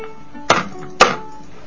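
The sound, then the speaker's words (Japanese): Two sharp, loud cracks about half a second apart as the hard shell of a snack is cracked open, with a quiet background between them. “殻が硬いんです殻硬いですねこれ結構あの後でね聞き直すと、うん、すごいびっくりするぐらい大きい音入ってるんです ごめんなさい皆さんはすいません”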